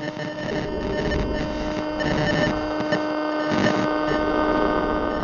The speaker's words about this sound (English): It started out calmly enough, but it soon devolved when I received a little more than static and then a constant buzz, as if a bumblebee had somehow gotten trapped inside my helmet.